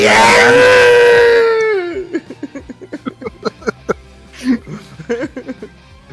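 A loud, long drawn-out "Yahoo!" yell held for about two seconds, its pitch sliding downward as it fades, followed by choppy bursts of laughter and quick chatter.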